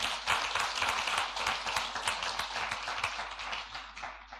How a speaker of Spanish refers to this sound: Dale un aplauso al Señor. Apláudale.